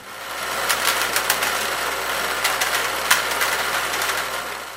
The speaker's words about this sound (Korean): 커다란 기계가 소음을 내며 돌아갑니다. 기계 안에선 윤기가 흐르는 초콜릿 원액이 돌아가고 있습니다.